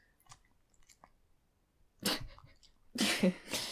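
A dog smacks and licks its lips: a few faint wet clicks, then two louder, noisy bursts of smacking near the end. No one speaks.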